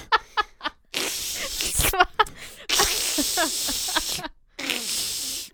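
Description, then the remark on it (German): A voice imitates meat sizzling in a hot pan, making long, loud hissing bursts broken by short pauses, with some breathy vocal sounds and laughter mixed in. “Ja, es war ein, ein, ein Fleisch in einer heißen Pfanne, welches”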